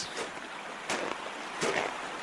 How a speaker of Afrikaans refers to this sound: Hmm, daar was mos 'n ongewone klomp reën in gisteraand se storm, julle. Die rivier het sommer sterk afgekom. Kyk daar, die water is nog steeds baie hoog en boonop nadat dit reeds vir 'n lang tyd baie droog was.